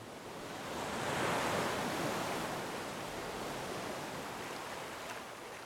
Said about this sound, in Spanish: Mientras tanto, el río seguía su cauce.